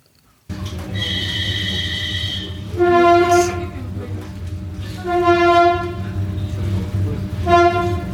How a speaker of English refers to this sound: I like the Vivi trains, and I'm happy when a new Vivi approaches the station rather than the old rolling stock.